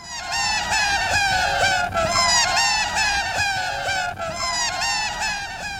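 A sped-up laughter tape loop that sounds like a flock of seagulls squawking: dense, shrill, wavering cries that repeat in a steady cycle about every two seconds, loud and continuous, with no talking.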